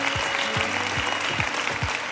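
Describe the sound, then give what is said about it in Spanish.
An audience applauds in a dense, steady wash of clapping that holds at a constant level, with a regular low thump beating underneath roughly twice a second, applauding the people holding their hands raised. “Aplauda estas manos que están levantadas”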